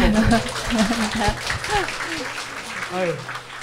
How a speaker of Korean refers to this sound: 그 바쁜데 오늘 나와주신 거예요. 박수.